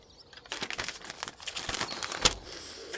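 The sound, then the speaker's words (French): Crisp rustling and crinkling of an official attestation paper, smeared with chestnut honey, being unfolded and handled, with a flurry of irregular crackles and one sharper snap near the end, no voices. “Ce papier est plein d'huile oh, Soyez pas offensant, ça c'est du miel de châtaigne.”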